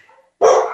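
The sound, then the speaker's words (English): A dog lets out a single loud bark that starts sharply after a brief faint whine and rings out for a moment. “I don't know if you can hear my dogs barking.”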